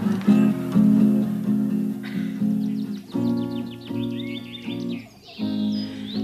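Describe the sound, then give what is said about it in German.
Birds chirp and twitter in quick, repeated high calls in rural countryside with fields and forest at Remshaldenburg, about 20 km northeast of Stuttgart, joined by a steady tonal music bed that stays louder underneath throughout. “Landidylle. Vogelgezwitscher, Felder und Wald.”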